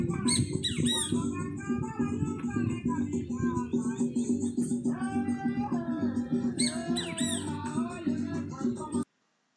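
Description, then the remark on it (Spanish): A small bird sings continuously, with rapid, high, warbling chirps and trills, on 26 December at 4 in the afternoon while neighbours hold a traditional barbecue. A steady low rumble with what may be voices runs underneath the whole time. “suena un pajarito que hasta ahora siempre sabe cantar.”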